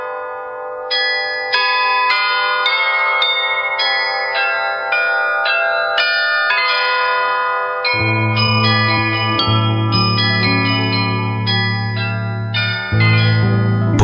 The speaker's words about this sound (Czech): Zažíval strašné chvíle a jako ostatním mu k zoufalému osudu zněla slavná loretánská zvonkora.